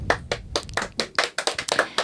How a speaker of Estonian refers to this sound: teeme aplausi ka